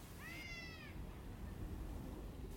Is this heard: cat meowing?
yes